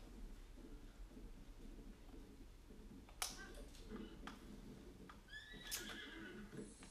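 A horse in a video game whinnies twice in short, bright bursts over a steady low rumble, like hoofbeats or weather in the background; no one speaks.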